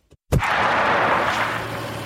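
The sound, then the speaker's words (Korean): A car pulls up roughly beside a pedestrian near a bus stop outside a broadcasting station one evening, with a sudden loud burst, then its engine keeps running in a steady, noisy rumble with a low hum underneath. No one speaks. “당신은 내 옆에 차를 거칠게 세웠다.”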